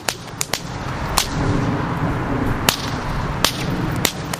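Sharp whip cracks from a performer swinging six-foot-long flaming whips into the night sky at an outdoor fire-dancing event in Chicago snap out in an irregular series, about seven in all, some in quick pairs, loud over a steady outdoor crowd murmur.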